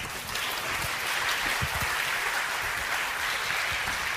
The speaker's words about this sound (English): Now, Pastor Steve's coming forward, and he's going to share a little bit with you. Clap for Pastor Steve. He's a wonderful man.